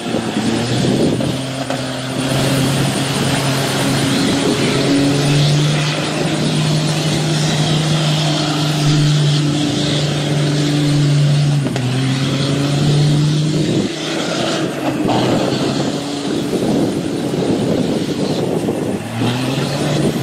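A car engine revs hard and continuously, its pitch climbing and dropping in sustained waves as the vehicle spins donuts, loud with no voices.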